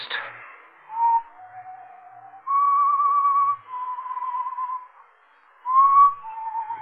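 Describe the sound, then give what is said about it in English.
A lone whistled melody with clear, sustained pure tones shifting between a few pitches, some notes wavering slightly, steady with brief pauses between phrases. “I heard that whistling again. That same tune.”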